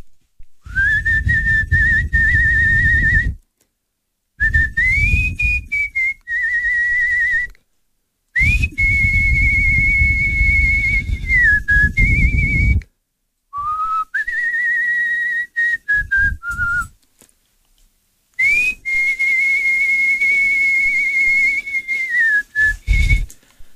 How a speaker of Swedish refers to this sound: Så vi sätter punkt nu genom att jag rakt ut i eterna visslar ett eh, stycke med Chegelida Manina